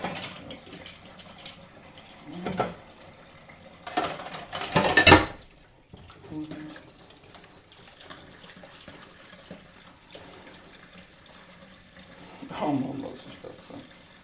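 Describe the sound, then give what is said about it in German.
Dishes being washed in a sink: running water from a tap with splashing bursts, the strongest surge midway, plus soft clinks of dishes and cutlery in a quiet setting. “Abwasch Aufwasch mit Zoom H-2”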